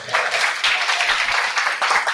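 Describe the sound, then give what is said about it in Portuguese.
A crowd breaks into steady, dense applause, many hands clapping at once in a loud, continuous wash of sound with no voices standing out. “Na salva de palmas”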